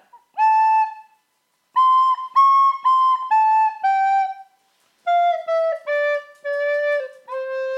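A recorder (Blockflöte) plays a simple, pure-toned melody in two short phrases of sustained notes separated by a brief pause, with one note slightly off, and no talking.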